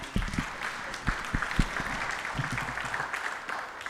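A group applauds a man for sharing, with many overlapping hand claps forming a steady, crackling wash that holds at an even, moderate level for the whole few seconds, with no one speaking over it.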